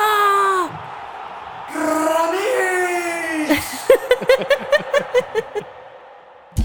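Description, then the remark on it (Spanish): A stadium crowd in the stands yells excitedly, with long rising shouts breaking into a fast, rhythmic run of chant-like bursts, loud, with no separate talking. “escuchen el graderío que está enardecido gritando, gritando que esto es derecho.”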